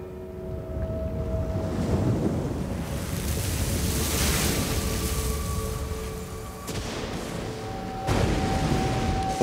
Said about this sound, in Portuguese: vento muito forte começou a soprar sobre o lago e o barco foi ficando cheio de água, de modo que todos estavam em perigo.